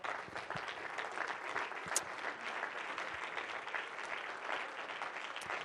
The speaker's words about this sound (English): Could you give the Lord a hand clap of praise?